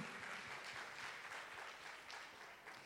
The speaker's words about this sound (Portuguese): Se você crê, dê uma salva de palmas a Jesus.